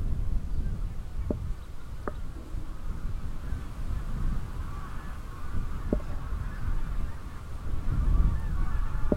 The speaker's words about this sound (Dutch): ik sta gelijk te luisteren, omdat ik gelijk daar op de achtergrond eh, zie je dat daar de ganzen nu losgaan.